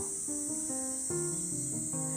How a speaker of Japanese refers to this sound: 音入ってますかねあの日暮らしが鳴いてるんですけど